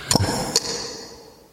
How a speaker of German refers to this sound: Geht das als Anstoßgeräusch durch?